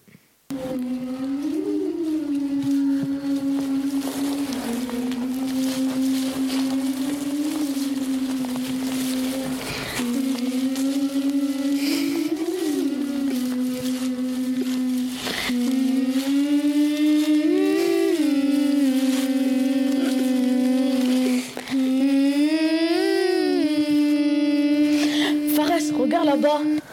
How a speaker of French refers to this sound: C'est quoi On dirait une femme qui, qui pleure. Approchons-nous. Eh bien, c'était un simple montage audio.